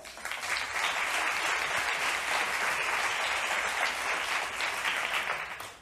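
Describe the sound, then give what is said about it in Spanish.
An audience applauds Macarena Uriarte, moderator of a panel, clapping steadily for several seconds, a dense, even wash of many hands at moderate loudness that swells in quickly and tapers slightly at the end, with no one speaking. “Un aplauso para ella.”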